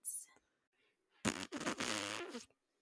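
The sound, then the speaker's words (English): A loud, sputtering raspberry blown with the lips, buzzing for about a second in two bursts, imitating a fart, after a faint breathy sound. “Farted.”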